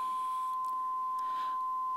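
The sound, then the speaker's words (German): A steady, unbroken high-pitched beep holds at one pitch for the full two seconds, clean and constant, with faint hiss and a few soft rustles in the background. “Das Faszinierende ist, unser Hirn ist darauf geeicht, dass wir irgendwann diesen Piepston nicht mehr wahrnehmen würden.”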